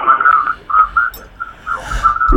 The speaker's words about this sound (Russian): ну вы знаете, вы радио приглушите там чуть-чуть, а то вы эхо проходите.